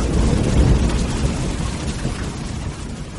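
thunderstorm thunder rumbling

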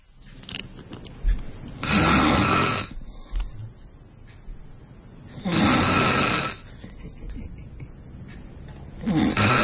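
man snoring loudly

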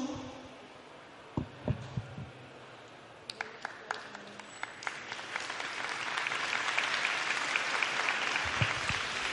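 hand clapping demonstration

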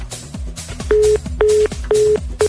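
phone call cut off

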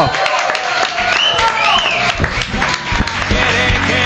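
studio audience applause

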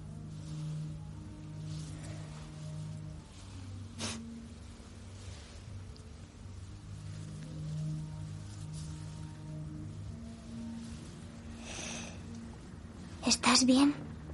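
car arriving

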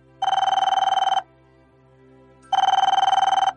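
telephone ringing

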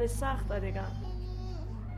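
young child crying

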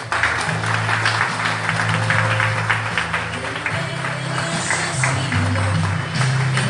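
loud applause

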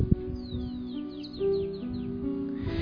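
small birds singing outdoors

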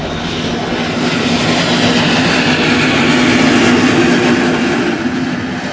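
airplane flying overhead

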